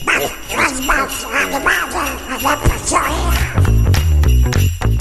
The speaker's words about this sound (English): There you go, sleigh bells makes everything Christmassy, doesn't it? I love that so much. I just knocked that together. Credit to Pixabay for the freebies.